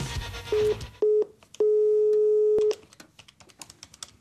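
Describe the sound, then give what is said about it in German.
A telephone call tone plays as a call is placed to ThyssenKrupp: a steady mid-pitched beep sounds twice briefly, then holds for about a second, with faint clicks and background noise around it and no talking. “Anruf bei ThyssenKrupp.”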